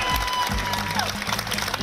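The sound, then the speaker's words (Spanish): An audience claps steadily for a 105-year-old woman receiving a government pension, a dense wash of many hands with no breaks, and faint voices and cheering mixed in underneath. “Pero además, miren, es un ejemplo, 105 años. Un aplauso”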